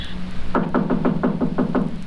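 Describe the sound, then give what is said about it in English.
Someone raps on the door of the firm of Scrooge and Marley about eight times in a quick, steady rhythm. The knocks are sharp and fairly loud, with no talking over them. “Get someone at the door.”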